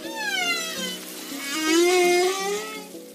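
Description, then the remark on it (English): A humpback whale sings, its long, eerie moans sliding slowly up and down in pitch, rich with overtones and heard alone in a steady, continuous stretch. “Some you're probably familiar with the haunting song of the humpback whale.”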